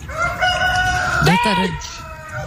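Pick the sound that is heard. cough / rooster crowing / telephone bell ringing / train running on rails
rooster crowing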